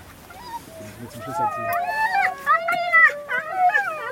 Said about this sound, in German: Das sind alles Hunde, alles Hunde aus Tierheimen und Misshandlungen.